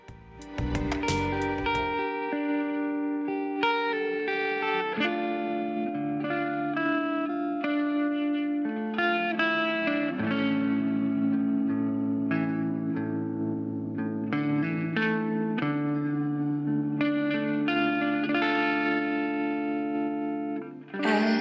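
A sustained, layered song with rich harmonic tones and a steady rhythm, processed with heavy effects that give it a distorted, echoing texture; no voices speak over it. It is a song made for the video game The Rise of Tomb Raider.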